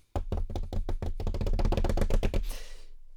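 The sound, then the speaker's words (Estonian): A quick hand-tapped drum roll, rapid taps starting slowly and speeding into a dense flurry, then stopping abruptly into a brief wash of noise. Fairly loud, no talking. “trummipõrin oli kuulda või mitte, ma ei tea”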